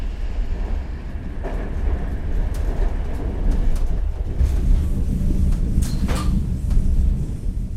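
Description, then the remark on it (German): A passenger train rolls steadily along the rails on the line from Genoa to Rapallo in Liguria, a continuous low rumble with intermittent metallic clanks and brief high squeals, no voices. “Die Bahnstrecke von Genua nach Rapallo ist dieselbe wie vor 100 Jahren.”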